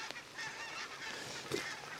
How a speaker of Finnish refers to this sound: Hanhia, Sieltä... oliko valkoposkihanhia? Tunnistitko? No ne oli joo, ei ihan, ihan ei, ei, ei pysty sanoa, kun ei. on niin sateinen ja sitten lentää taivasta vasten, näkyy vaan musta siluetti.